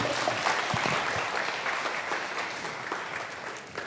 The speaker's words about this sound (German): Dann einen herzlichen Applaus